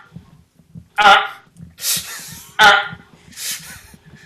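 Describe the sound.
A person vocally imitates a dial-up modem, making four loud bursts that alternate between squealing tonal screeches and hissy static, with short pauses between them.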